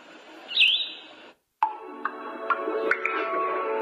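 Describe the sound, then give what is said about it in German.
Recorded birdsong from a sound machine in music mode, its light changing as sounds are switched: a bright chirping trill, a sudden short silence, then more thin chirps and tweets over a steady electronic hum, with a few soft clicks. “Hier nochmal live, die verschiedenen Musiktöne kann ich hier durchschalten. Und ihr seht auch, dass das Licht sich verändert. Wasser rauschen, Vogel zwitschern.”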